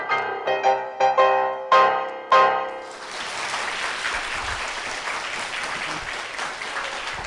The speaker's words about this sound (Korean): 제가 몰랐는데 오늘 보니까 박수가 조작되는 거네요.